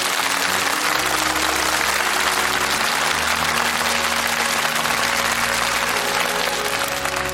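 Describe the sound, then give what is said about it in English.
A steady round of applause for the season's award winner fills the whole stretch, dense clapping from many hands at an even, loud level with a low hum of crowd underneath and no speech. “That that round of applause sums up the season nicely”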